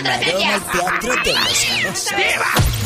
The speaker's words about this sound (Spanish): Ay, ese gatito suyo